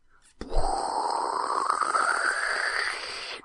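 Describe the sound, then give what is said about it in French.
A person imitates a rocket with a loud, breathy roar that starts abruptly and rises steadily in pitch for about three seconds, alone with no talking. “C'est le bruit d'une fusée.”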